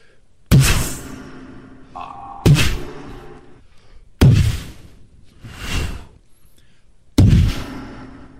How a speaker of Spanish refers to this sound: Y le dio el balazo, güey.